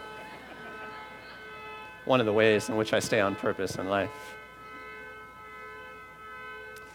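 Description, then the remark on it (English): A car alarm or horn drones as a steady, unbroken tone for the whole clip, fairly faint, while a person speaks briefly over it partway through. “a car horn is going to go off while you're talking about chaos and distract everybody so they're not listening to you.”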